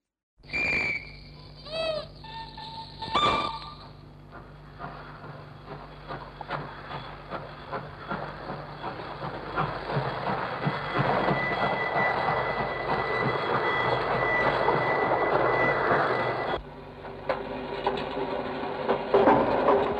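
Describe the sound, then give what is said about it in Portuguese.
Short train whistle blasts open, then a steady, loud mechanical rumble of a moving train builds, its wheels clattering in a rapid rhythm with metallic squeals and no talking. These are train and station sounds recorded on magnetic tape by Pierre Schaeffer, cut and spliced in a new order for his piece Estudo dos Caminhos de Ferro. “Para fazer esta peça, Pierre Schaeffer gravou em fita magnética sons de trens e sons obtidos numa estação.”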